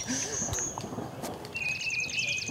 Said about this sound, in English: Just a recording of red cockaded woodpeckers. Um, they make different calls. This one's a little bit more of a aggressive this is my territory call, mm-hmm. and that's what they're responding to. Basically, like, no, this is mine.